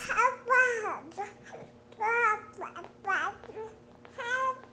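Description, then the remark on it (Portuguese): A five-month-old baby girl babbles in a series of high, sing-song vocal bursts with short pauses between them, with a faint steady hum in the background. “essa que vocês acabaram de escutar é a …, nossa bebê de 5 meses”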